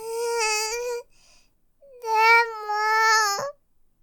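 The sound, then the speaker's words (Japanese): A young girl cries in two long, high-pitched wails, the second one stretching longer and rising sharply at its end, with a short pause between them. The crying is fairly loud. “さあ、涙を拭き終わったら、お医者さんに行くわよ。”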